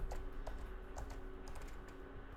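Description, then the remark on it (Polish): Several soft, quick key clicks tapped at an uneven pace over a steady low hum, fairly quiet, as someone types the value 30 into a settings field on braille display keys, with no voices. “No to ja piszę 30, bo lepiej to słuchajcie mieć na maksa ustawione.”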